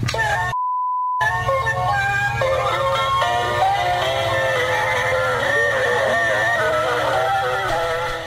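An electronic doorbell melody plays loud after a short steady beep, its notes warbling, wobbly and distorted, the tune dragging and struggling to play because the doorbell's battery is low.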